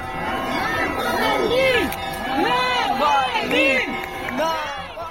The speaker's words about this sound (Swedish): Så lät det utanför kyrkan i Moskva när kistan bars in och många hade samlats för att ta farväl.